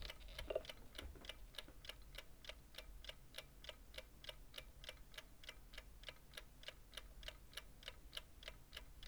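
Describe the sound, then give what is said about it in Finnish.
An alarm clock in a bedroom ticks steadily and evenly, a crisp, quiet tick repeating about three times per second with no pauses, against faint hiss and no voices. “näihin kellon tikitysääniin onkin hyvä lopettaa tämä jargonia”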